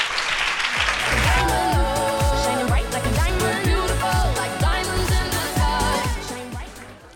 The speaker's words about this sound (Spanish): Os lleváis este fuerte aplauso de vuestros compañeros.